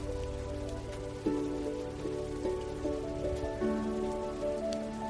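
Steady rain falls in a continuous, even patter, with soft sustained musical tones drifting underneath; no one speaks.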